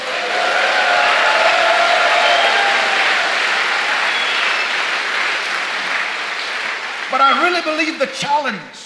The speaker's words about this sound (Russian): Если ты веришь в это, дай Ему большие аплодисменты.